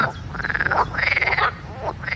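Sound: frog croaking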